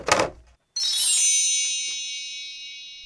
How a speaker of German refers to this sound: Was war das? Ein Klingel? Ah, ich kann es mir vorstellen. Vielleicht so ein, so, ein, so ein Feenzauber wie so ein Zauberstab?